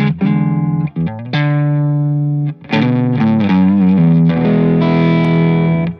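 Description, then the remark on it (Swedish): An electric guitar plays through an amp with a little gain on the low input, sustained notes and a few quick phrases ringing out with a slightly gritty, not very thick tone, fairly loud with no talking. “Så att jag gainar på lite grann och så har jag det låga inläget så låter det så här inte fullt lika tjockt liksom.”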